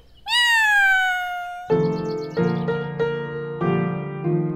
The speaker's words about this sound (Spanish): Este gatito les dice adiós. ¡Miau, miau!